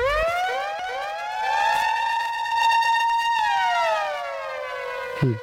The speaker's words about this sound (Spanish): pero no me ponga esa sirena en la Segunda Guerra Mundial, por favor. Ah, bueno, esa es la que le tengo para usted.